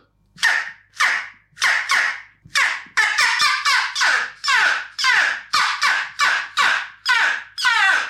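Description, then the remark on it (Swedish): A game call pipe, bitten hard and blown straight into the microphone: a rapid series of about fourteen loud, squeaky, rasping calls, some bright and very short, some bunched quickly together, with no talking. “Det låter säkert för jävligt man sitter och blåser rakt in i mikrofonen men uh, mm.”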